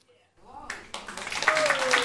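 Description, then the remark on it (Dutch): An audience breaks into applause, the dense patter of clapping swelling quickly from near silence and holding steady, with some voices mixed in beneath it. “Ehm, en oh, ik wil er wel even aan toevoegen, want applaus eh, zou erop kunnen duiden dat wij ook een vorm van actiejournalistiek zijn.”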